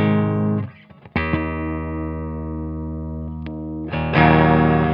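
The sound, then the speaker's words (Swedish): An electric guitar with P19 pickups played through an effects unit, with long sustained chords ringing out, a brief choppy pause, then a new chord struck and held before a louder chord near the end. “Man hör ju att de här P19 är nästan lite snällare.”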